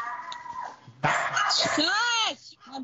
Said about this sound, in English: The dog agrees.